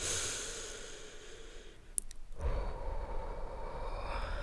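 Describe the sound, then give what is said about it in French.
A slow, deep, mindful breath drawn in and then released in a long, airy exhale, with a brief pause between the two and no talking. “À toi de noter ce qui te plaît le plus, mais voici quelques idées que j'ai quelques respirations en pleine conscience.”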